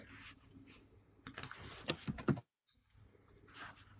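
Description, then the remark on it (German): Quick bursts of keyboard typing by someone with their microphone on, a cluster of sharp clicks and key taps in a fast uneven rhythm, with a brief silent gap before softer tapping resumes over faint room noise. “Wer hat hier das Mikro an? Den höre ich tippen.”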